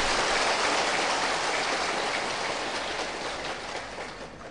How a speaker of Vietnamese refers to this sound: nếu quý vị làm được thì xin à, cho một chàng pháo tay để tự khen chính mình